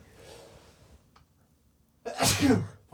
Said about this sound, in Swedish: nu nyser han också. Ah, ursäkta.